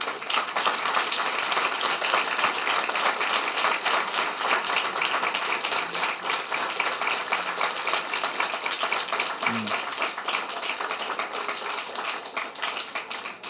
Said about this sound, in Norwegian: Eh, tusen takk til et stjernespekket team. Gi dem en god runde applaus.